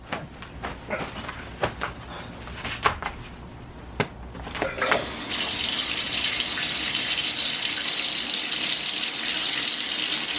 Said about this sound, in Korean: 남자는 비위가 상한 나머지 샤워기의 수압을 높였다.